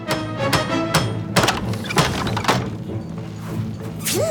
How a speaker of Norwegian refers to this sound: Winter tar med seg to planker og en hammer. Han går målbevisst til Gjertruds bakeri og spikrer plankene over luka til bakeriet.